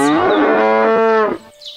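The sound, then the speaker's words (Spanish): A cow gives one long, loud moo early in the morning, a strong drawn-out low call that holds steady for over a second before cutting off, with no one speaking. “Temprano a la mañana siguiente, la vaca mugió con todas sus fuerzas.”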